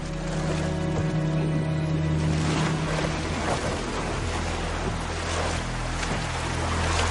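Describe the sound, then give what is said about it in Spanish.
A boat, with Tyrion bound and gagged inside, scrapes and splashes as it is shoved off the sand into breaking surf, waves washing steadily around it under a low, constant roar of sea and wind. “Echa a Tyrion dentro y empuja la embarcación hacia el mar.”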